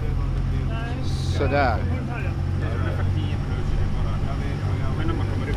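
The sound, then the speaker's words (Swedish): Steady low engine drone with a constant hum, heard outdoors on the deck of the moving boat Charlie Brown 4 from Pargas, heading over to Björkholmen, while a person speaks briefly over the continuous rumble. “Vi rymdes inte alla in i båten så vi är ett gäng som står ute här och försöker härda ut.”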